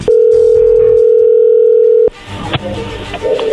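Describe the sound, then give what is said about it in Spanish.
A loud, steady single-pitched telephone tone holds for about two seconds, then cuts off abruptly into a line noise of faint clicks and murmurs as the call connects. “A ver, ahí entró la llamada, no haga ruido”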